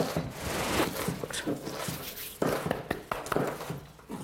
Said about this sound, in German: So lange würfeln wir die Zwiebeln auf.